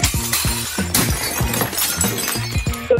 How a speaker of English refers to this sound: And during the bride and groom's first dance, I dropped a bunch of plates super loudly, and like everyone saw.